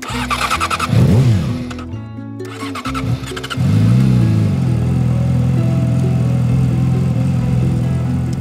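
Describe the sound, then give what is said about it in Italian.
Nicola's motorcycle, which had sat in a garage for a while, turns over and fires, revving in a few sharp bursts before settling into a loud, steady idle as the engine warms up, ready to set off. “La moto di Nicola è stata ferma per un po' in garage, ma ora che il motore si è scaldato è pronta a partire.”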